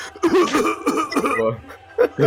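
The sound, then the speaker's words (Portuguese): A series of short coughs in quick bursts, with a brief pause before a final pair, mixed with a bit of chuckling or voiced breath. “Tem é que tossir, tem é que tossir.”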